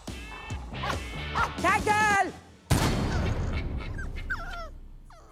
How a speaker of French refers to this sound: il y a un chien qui s'est fait tuer dans la bande annonce Euh. Non, je crois pas. Bah, là, euh, j'ai entendu un coup de feu et un chien qui bah écoute, euh,